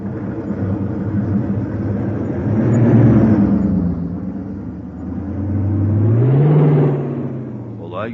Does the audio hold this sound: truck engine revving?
yes